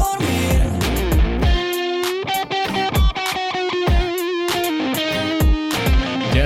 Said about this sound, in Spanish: raro escuchar una guitarra eléctrica ¿eh? dentro del sonido urbano.